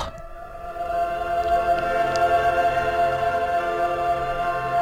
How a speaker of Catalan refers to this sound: Oh, és que l'escoltes i dius... Jo, jo poder estic per callar-me i que només se senti l'orquestra.